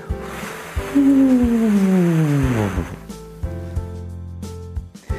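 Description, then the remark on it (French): A voice does a vocal exercise of descending sirens, gliding smoothly downward in a long siren-like slide, wrapped in airy, breathy wind-like hiss, then gives way to a few soft, low hums and breath noises. “Remettez une dernière fois la vidéo en pause et refaites trois fois ces petites sirènes descendantes en prenant garde toujours de garder ce bruit du vent et rajoutez le hibou ensuite.”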